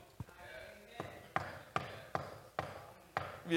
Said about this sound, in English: Yeah, I ain't talking to you, but what you heard, you heard me knock, don't you? Yeah, okay. Whoever I'm knocking for is going to answer me.